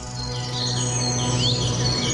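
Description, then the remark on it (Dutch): Birds chirp and twitter in short, high, overlapping calls over a steady outdoor background hum, with no voices, in a calm park among trees and plants. “Ik neem je mee naar bomen, planten, vogeltjes.”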